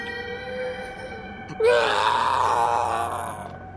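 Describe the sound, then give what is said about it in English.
After a low steady drone, a monster suddenly lets out a loud, sustained wail, shrill and strained like a screaming baby, lasting about two seconds before easing off. “One of them has a 40 arm sticking out of the top of its head, screaming and wailing, but its mouth and its sound sounds like a screaming baby.”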